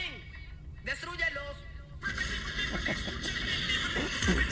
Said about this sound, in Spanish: y hay que escuchar el gritito de queja